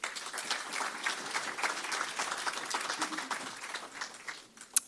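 A crowd applauds steadily for about five seconds, a dense wash of many hands clapping at once, holding a fairly even level before thinning out, with one sharper clap near the end.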